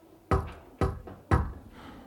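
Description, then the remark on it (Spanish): Three soft, evenly spaced, timid knocks on a door, each a dull thud that dies away quickly, with no voices. “Luego escucho un golpe tímido en la puerta.”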